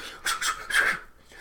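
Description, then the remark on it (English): Three quick swishes of windbreaker fabric rubbing, the last one slightly longer, in a brisk rhythm with no voices. “just every every thirty seconds, just swish, swish, swish”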